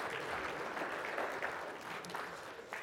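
A crowd applauds steadily, a dense wash of many hands clapping at an even loudness for a few seconds, with no voices rising above it.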